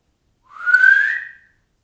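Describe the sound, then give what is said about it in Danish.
A single rising whistle from a person, one smooth tone sliding upward over about a second, clear, with no talking around it. “Det var lige efter, du fløjtede.”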